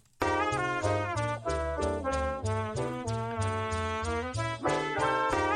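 A loud, bright AI-generated big band jazz intro, made of several short snippets cut together, with punchy brass chords over a walking bass line, playing with a steady swing and no voices, with an audible point where it loops.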